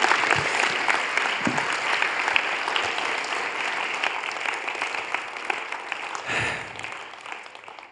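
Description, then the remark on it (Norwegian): Steady audience applause with many hands clapping in a dense, even patter, briefly swelling near the end before tapering off. No voices are heard. “Uh, eh, jeg hadde med å gi en applaus.”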